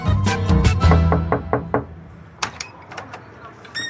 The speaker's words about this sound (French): Alors c'est une maison rose qui fait l'angle, dans une rue en pente, non loin de la place du marché. Il est 14h, on toque à la porte.